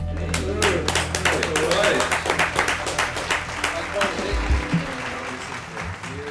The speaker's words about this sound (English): So, a round of applause for our special uh, co host